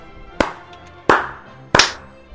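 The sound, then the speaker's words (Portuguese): Three sharp, loud hand claps, spaced a little over half a second apart, each with a short ringing decay, and no talking around them, clapped by everyone after a count of one, two, three to synchronize audio recordings. “para sincronizar os áudios aqui, vou contar um, dois, três e palminha. Na palminha, né? Todo mundo bate palma, né?”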